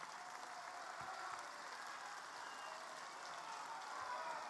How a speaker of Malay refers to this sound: Kita bagi tepukan kepada hero kita.